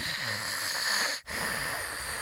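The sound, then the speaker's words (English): A voice imitates a newborn baby's rattly, raspy breathing, which sounded like snoring even when breathing normally: two long, wheezy, gurgling breaths, steady, separated by a brief pause, with no talking. “so she would like, she had a very like rattly, raspy, like”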